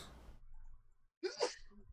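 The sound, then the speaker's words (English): A single sharp sneeze bursts out after a brief quiet pause, a quick intake followed by an explosive, breathy burst. “Bless you a lot.”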